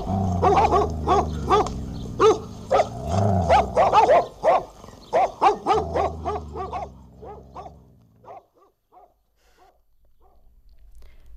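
A pack of hunting dogs that have scented prey bark rapidly and excitedly together in pursuit, a frantic overlapping chorus with some low growling, then the barks thin out and fade toward the end.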